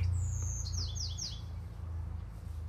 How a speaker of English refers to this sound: So will these birds. That's okay.